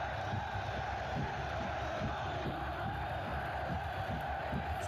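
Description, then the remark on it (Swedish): A large football stadium crowd roars continuously just before kickoff of a big match, a dense wash of cheering and chanting voices filling the space with steady, excited energy. “Det är bara riktigt stora matcher som vibrerar så här.”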